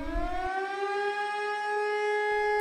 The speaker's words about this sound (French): Oh, mais qu'est-ce que j'entends Qu'est-ce que c'est que ça C'est. Ça te fait penser à quelque chose Une la, sirène La sirène qu'on entend quand il y a des bombes.